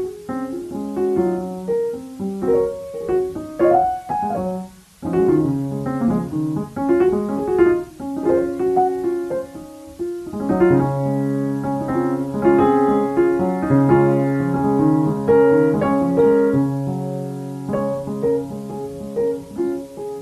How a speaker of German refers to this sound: Das eine ist, glaube ich, nicht so gut geeignet. Das ist so ein bisschen Klaviermusik. Ähm, das ist ein bisschen Rauschen drin. Das hört sich so an.